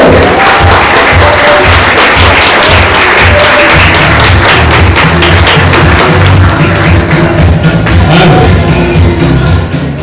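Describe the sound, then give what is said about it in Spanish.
Loud, sustained audience applause welcomes a speaker back for the second part of a seminar, filling the whole ten seconds with a dense wash of many hands clapping at a steady level, with a low rumble running underneath. “Entonces recibámoslo nuevamente con un fuertísimo aplauso.”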